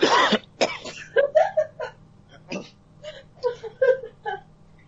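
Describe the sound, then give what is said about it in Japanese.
A person clears their throat with a couple of harsh, raspy bursts, followed by a few softer strained vocal noises and breathy sounds. “ちょっと今、咳払しとこう。”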